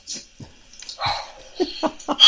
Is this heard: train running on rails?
no